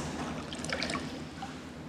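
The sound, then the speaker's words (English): Water trickles and pours steadily for a couple of seconds, with a few brighter splashing drips in the middle, at moderate volume, and no voices. “Whether it's a bowl of water, whether it's a bat- bathtub of water, whether it's just a few drops of water, we believe that Jesus Christ is present in all those quantities of water.”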